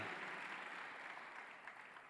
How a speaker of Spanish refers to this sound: ¿Cuántos se lo creen? Dale un mayor aplauso, México.